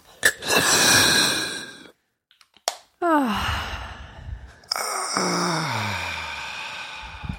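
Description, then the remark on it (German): A breathy, hissing rush of air from an asthma inhaler spray, then a brief click, followed by long voiced sighing exhalations that trail downward in pitch, like someone recovering after a deep inhale. “So, ich habe gerade gemerkt, ich muss mal ein Asthma-Spray nehmen.”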